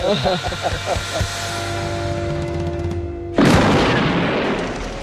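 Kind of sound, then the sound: sound effect, rifle gunshot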